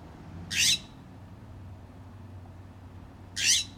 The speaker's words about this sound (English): And I keep interpreting this squawk as like, oh, I'm kind of annoyed.